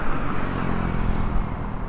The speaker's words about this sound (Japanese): 車は多いねでも